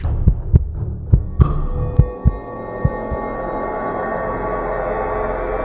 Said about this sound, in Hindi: धड़कने काफी तेज थी